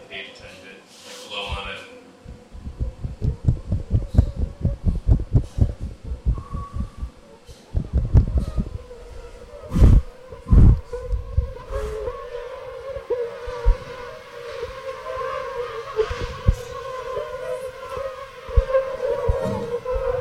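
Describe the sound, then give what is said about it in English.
Steady whine of hundreds of mosquitoes buzzing as a swarm inside small mesh cages in a lab, with irregular soft thumps and bumps as insects knock against two microphones placed inside the cages, bursts of rapid tapping early on, then a sustained droning hum. “We stuck two microphones inside to record them, you can hear the mosquitoes bumping into the mics as they search for tasty mammals to feast on.”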